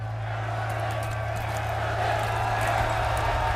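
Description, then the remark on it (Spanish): Dozens of fans applaud steadily at the arrival of the lead actor of a film festival's surprise film, scattered claps blending into a dense wash of noise with murmuring voices underneath, holding an even, moderate loudness throughout. “Como escuchan, la decena de seguidores, decenas de seguidores han aplaudido su llegada, se ha hecho fotos, ha saludado, ha firmado autógrafos durante más de 10 minutos por protagonizar esta película.”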